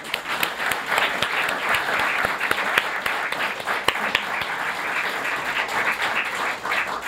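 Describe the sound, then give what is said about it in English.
Steady, dense audience applause for the storytellers at a storytelling event at the West End Studio Theater fills the whole stretch, many hands clapping at once in a continuous loud wash with sharper individual claps popping out now and then. “I want to clap.”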